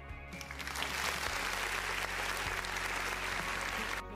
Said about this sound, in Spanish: Sí, eh, unos aplausos para el doblaje que... ¿e-, ¿Es, latino? el latino?